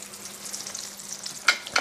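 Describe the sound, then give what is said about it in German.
Steady crackling sizzle of sauce frying in a pan, a dense high hiss with scattered pops, plus two sharper clinks or scrapes near the end. No one speaks. “Kannst du da ein bisschen zurückschalten hinten bei der Soße?”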